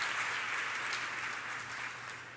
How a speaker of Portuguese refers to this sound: O caminho de Deus é perfeito, a palavra do Senhor é provada ele é escudo para todos os que nele se refugiam e dá uma salva de palmas pela palavra.